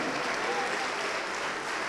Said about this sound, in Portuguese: Vamos aplaudir mais, igreja. Vamos aplaudir mais porque está chegando mais. Vem, vem, vamos aplaudir mais.